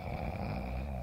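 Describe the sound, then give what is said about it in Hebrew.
A single drawn-out snore from someone who has fallen asleep in bed, fairly loud, with a rough, rattling rumble that holds steady for about a second. No one speaks. “איזה נחירות!”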